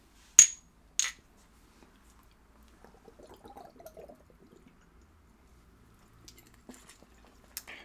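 Two sharp clinks ring out during a toast, then someone sips and swallows a small ginger shot, with soft wet gulping sounds, followed by a few faint clicks.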